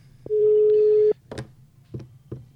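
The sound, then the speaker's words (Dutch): A single steady telephone ringing tone sounds for about a second over a line, followed by a few faint clicks and soft bursts of line noise, with no one answering. “het lijkt er alleen op dat hij niet gaat opnemen.”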